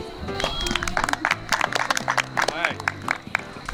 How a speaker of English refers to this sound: right, anybody else for the costume contest? Please come forward. All right, for the first contest, we're going to go with the best couple. best couple, right here. Oh, thank you. Show of applause.